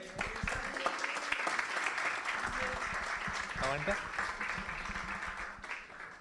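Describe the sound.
An audience applauds steadily for about six seconds, a dense wash of many hands clapping at even loudness, with voices and scattered cheers mixed in before it starts to thin at the end.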